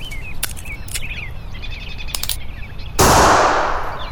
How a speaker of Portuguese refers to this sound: Você errou o tiro. Não sei por que não pode fazer uma coisa certa pela primeira vez.